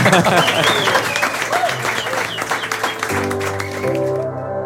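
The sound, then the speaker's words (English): An audience at Epicenter in Stockholm, Sweden, breaks into steady, dense applause welcoming Eric Ries, carrying on for several seconds with a few voices and cheers mixed in before the clapping gives way to faint musical tones. “An applause, please.”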